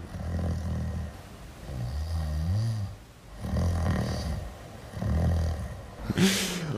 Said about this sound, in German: Habe ich geschnarcht? Ein bisschen.